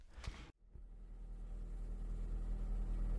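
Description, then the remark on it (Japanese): A steady low rumble of a car engine and road noise fills the cabin of a moving car, recorded through a microphone with an extra shock mount, with a brief handling thump and a short dropout near the start before the drone settles in. “ちょっと音が聞こえてるかもしれませんが、今日も例によって、車で収録してみようと思います。”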